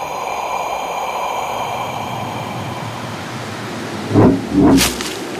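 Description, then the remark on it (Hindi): A howling storm with heavy snow roars steadily throughout, a dense, unbroken rush of wind, with two sharp louder gusts surging close together near the end, on the way to Mount Kailash. No one speaks. “हे प्रभु इतनी बर्फ इस तूफान में मैं कैलाश पर्वत तक कैसे पहुंचूंगा”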